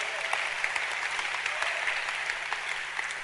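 A church audience clapping hands together in a dense, steady wash of applause, many claps blurring into a continuous crackle with occasional sharper individual claps standing out.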